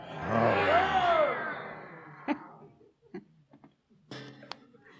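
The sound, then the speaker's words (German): A crowd of many voices lets out a loud, sustained roar on request for about a second and a half, then it fades into scattered coughs, chuckles and small knocks. “Let me hear your best roar.”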